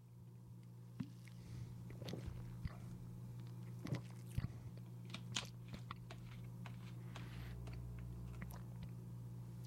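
Someone takes a quiet sip of a bottled flavored seltzer brought back from New England: a few soft wet mouth clicks and swallows scattered over a steady low electrical hum, with no talking.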